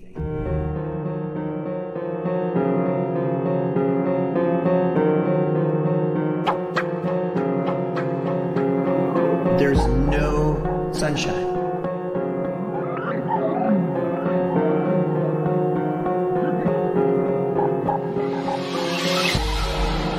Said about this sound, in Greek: το κομμάτι που παίζει από πίσω είναι ένα mashup με … και …